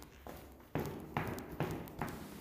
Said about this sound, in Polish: Idę, idę, idę, idę, idę, idę. Słychać moje kroki.